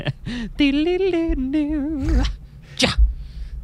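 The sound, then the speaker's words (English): A famous short jazz lick: a quick run of wavering, pitched notes that climbs briefly and then settles lower, clear, ending in a sharp breathy burst. “And we all know we're going to hear the lick.”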